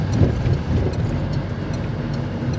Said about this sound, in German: Bis Wuppertal ist es eine knappe Stunde Fahrt. Es ist ein sehr spüler Sommertag. Deswegen läuft die Klimaanlage in Fernandos Auto auch auf Hochtouren.